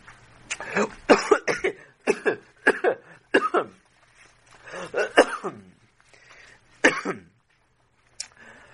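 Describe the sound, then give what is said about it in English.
A rabbi coughs and clears his throat in a run of harsh, short bursts with brief gaps over about eight seconds, some clustered in quick doubles, ending with one final short cough. “Everyone's coughing today.”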